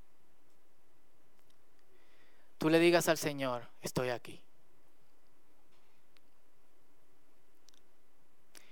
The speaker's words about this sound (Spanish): Y en total silencio, no música, solo el sonido del aire acondicionado